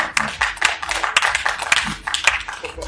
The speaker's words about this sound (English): That's what gets the claps. I like that.